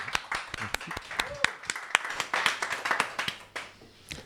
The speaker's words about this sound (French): On applaudit, on applaudit.